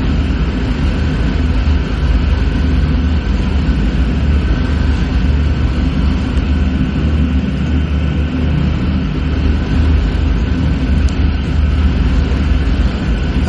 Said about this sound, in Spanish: muy reconocible de este avión era que incorporaba unas sirenas de viento que se activaban durante su descenso sobre el blanco. Sirenas que emitían un aullido y que los propios aviadores alemanes apodaron, curiosamente, las trompetas de Jericó.